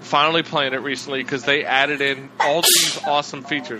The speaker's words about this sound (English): Bless you.